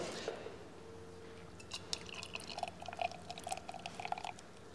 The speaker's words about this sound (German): So, jetzt ist es aber endlich mal soweit. Jetzt wird mal verköstigt jeden Fall erstmal das Glas ausspülen, ganz wichtig vorher.